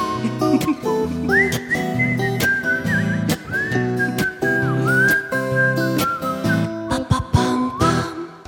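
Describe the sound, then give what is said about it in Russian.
A person whistles a wavering melody, clear and steady, over a full band with a pulsing beat and sustained chords, the whistled line running through most of the passage. “Не свисти, говорю, денег не будет.”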